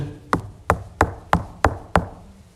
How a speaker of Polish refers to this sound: pukanie. Wróg przyszedł zapytać o swoje.